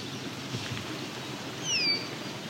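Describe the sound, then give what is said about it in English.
An eastern kingbird gives a single brief, thin, high-pitched descending call near the end, faint against a steady outdoor background hiss. “There's an eastern kingbird here.”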